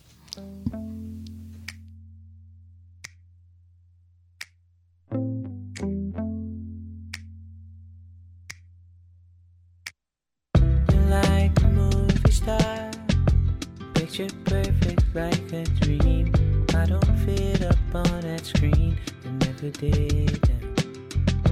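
A pop song plays, opening with a sparse intro of sustained low chords and sharp finger snaps, then bursting halfway through into a full, loud arrangement with steady beat and dense instrumentation.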